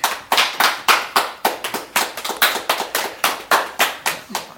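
An audience applauds with a dense, steady run of sharp, bright hand claps, fairly loud and sustained for several seconds with an uneven rhythm and no voices over it.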